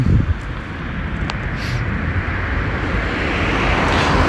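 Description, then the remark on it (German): A steady outdoor rumble of traffic fills the background, broad and continuous with a faint passing swell, mixed with some wind noise and no voices. “ich höre, es ist noch recht viel Verkehr.”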